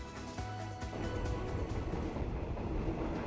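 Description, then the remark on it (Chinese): Thailand's seasonal floating train crosses the country's largest reservoir, seeming to float on the high water, rolling steadily with a loud continuous rumble, a low hum and faint rhythmic wheel clatter throughout. No voices can be heard. “特别之处在于，雨季结束，水坝水位高涨，所以这个火车经过的时候，仿佛是漂浮行驶在水面上一样。”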